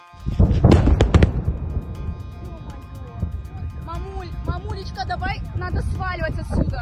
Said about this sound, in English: Tourists at a Black Sea resort fled as explosions and a column of smoke appeared in the distance. A nearby Russian airfield was up in flames, but precisely what caused the destruction remains something of a mystery.